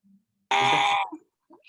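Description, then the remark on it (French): A baby girl lets out one loud, shrill half-second squeal, followed by a few soft little babbling sounds. “Bon, je sens que mon bébé veut répondre à ma place.”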